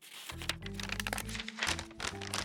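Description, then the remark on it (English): Continuous crinkling and rustling of paper as a note folded up many times is worked open, with crisp crackles and small crunches over a couple of seconds and no voices. “Wow, he really folded this thing up a lot of times.”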